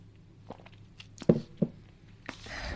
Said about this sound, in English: Sorry, I'm going to have to sip some water.